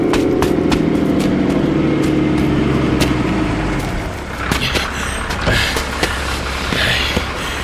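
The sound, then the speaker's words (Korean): A heavy truck engine rumbles loudly and steadily as the truck pulls up to a stop, its low drone shifting as it slows, with scattered knocks and clatter over the top and no talking. “아, 좀 태워줘요! 같이 좀 갑시다!”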